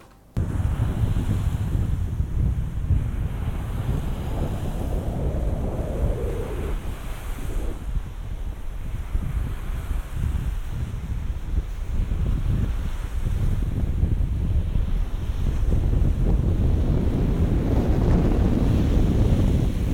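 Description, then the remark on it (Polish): Wind buffets a pair of binaural microphones by the sea at Świnoujście, producing a loud, continuous low rumble over the steady wash of waves, with gusts swelling and easing throughout. No one speaks. “jak y, też może się zachować y, taki zestaw mikrofonów binauralnych, y, jeżeli trochę wiatr w nie podmucha.”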